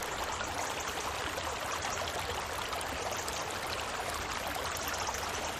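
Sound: flowing river water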